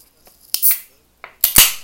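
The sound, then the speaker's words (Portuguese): A beer being opened: a sharp metallic crack with a short fizzing hiss, then a second louder crack followed by a longer rush of carbonated hiss. No one speaks. “Espera aí, deixa eu abrir uma cervejinha.”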